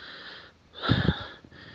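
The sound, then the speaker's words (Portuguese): A voice imitates a woman's heavy panting, like a person running while talking, with two or three loud, raspy breaths pushed out in quick succession and no words spoken. “Ela começou a ofegar, a ficar.”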